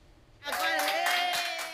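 After a brief quiet moment, applause breaks out suddenly as hospital staff in Brazil clap in a corridor for a 94-year-old patient who beat Covid-19. A group claps steadily and loudly, with voices and cheering mixed into the dense clatter until the end.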